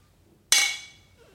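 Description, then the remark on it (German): A single bright clink of glasses touching in a toast, a sharp strike followed by a high, shimmering ring that fades over about half a second. “Sollen wir auch noch so anstoßen?”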